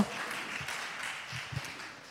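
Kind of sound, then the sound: crowd, audience applause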